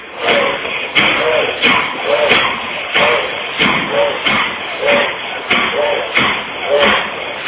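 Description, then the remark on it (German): Forceful bhastrika bellows breathing during a guided yoga practice, with loud, airy inhales and exhales pumping in a steady, quick rhythm of about two breaths per second, with no talking. “Wenn ihr wollt, könnt auch hier wieder das Bastrika irgendwo die Schultern sich heben oder senken.”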